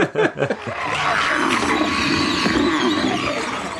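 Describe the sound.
A person growls like a zombie, opening with a few short guttural bursts, then a long raspy roar that holds loud until the end, with no words spoken.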